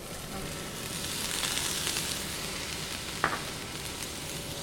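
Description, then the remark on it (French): Oil, just put in a frying pan, sizzles steadily, a dense crackling hiss that stays even throughout, with one sharp pop near the end and no voices. “Donc là, j'ai mis de l'huile euh, sur la poêle, exactement comme si vous allez cuire petit blanc de poulet.”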